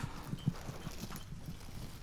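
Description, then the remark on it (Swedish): An old wind-up mechanical toy chicken hopping around after being wound up, making a quick run of soft, low clattering taps in an uneven trotting rhythm, fairly quiet and with no voices. “Det är en mekanisk kyckling som hoppar runt när man drar upp den.”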